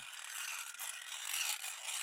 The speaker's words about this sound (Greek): Σαν πέρασε αρκετή ώρα και ο δράκος θεώρησε πως ο Ασπουρτσέλα θα κοιμόταν, πήρε ένα μεγάλο ξύφος και άρχισε να το ακονίζει.